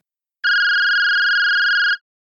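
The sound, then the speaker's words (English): A smartphone in a lab coat pocket rings once: a single steady electronic tone lasting about a second and a half, clear, with silence before and after and no voices. “She jumped a little when her smartphone came to life in her lab coat pocket, ringing once, twice, no, only once.”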